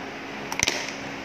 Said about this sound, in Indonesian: aku kalau gigit es batu kedengeran nggak sih kedengeran iya. aku suka gigit es batu